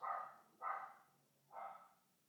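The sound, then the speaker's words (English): Three muffled dog barks sound from a floor above, through two closed doors: two in quick succession, then a short pause before the third. No one speaks. “Can you hear my dog barking? That's a floor up with like two closed doors.”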